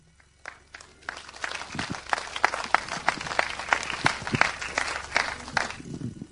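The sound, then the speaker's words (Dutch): An audience breaks into applause, many hands clapping in a dense, steady patter that builds quickly and continues for several seconds at moderate loudness, with no one speaking over it. “Als mensen klappen voor ons, dat is natuurlijk heel fijn.”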